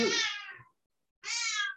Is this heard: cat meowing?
yes